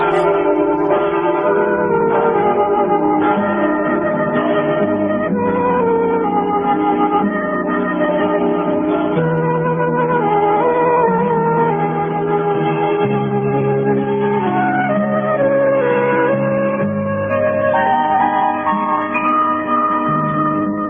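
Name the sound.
song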